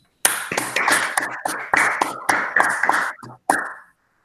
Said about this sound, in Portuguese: Mas não só, é também dedicado a todos aqueles que estão a ser afetados diariamente por esta situação e aos que estejam a trabalhar a partir de casa. E é por isso que estes aplausos vão diretamente para todos os trabalhadores.